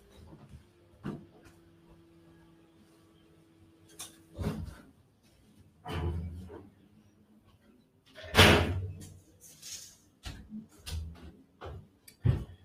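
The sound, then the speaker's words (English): A window being closed: a scatter of clicks, knocks and dull thuds, then one louder bang partway through and a few lighter clunks after, over a faint low hum, with no one speaking. “I'm going to close the window.”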